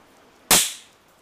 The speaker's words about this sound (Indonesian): Setelah gue taruh di atas meja, beberapa saat kemudian ada ledakan lagi. Dan dari tempat yang sama di samping gue.